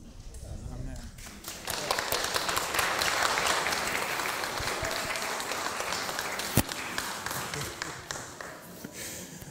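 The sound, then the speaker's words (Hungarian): An audience breaks into sustained applause, a dense wash of many hands clapping steadily for several seconds after a brief quieter start, with one sharper clap standing out near the end. “kedves volt, hogy belőletek az ő szolgálata az tapsot fakasztott.”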